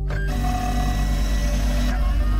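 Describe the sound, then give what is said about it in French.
A 3D printer running, giving off a steady mechanical hum with a faint whining motor tone that holds constant throughout, with no voices. “Alors comment ça s'imprime concrètement, une arme en 3D Alors déjà, il faut une imprimante 3D.”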